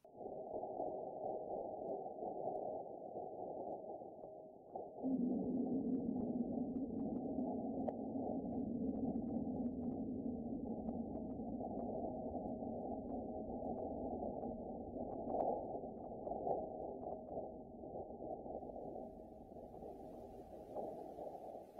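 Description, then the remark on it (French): A steady, muffled low rumble with a faint droning hum rises in after a few seconds and holds throughout, recorded on the surface of Mars, its vibrations amplified so human ears can hear them. The sound is windy, with no voices. “Et du coup, il faut savoir que ce son a été augmenté, enfin les vibrations du son ont été augmentées pour que l'oreille humaine puisse l'entendre, sinon on l'aurait juste pas entendu.”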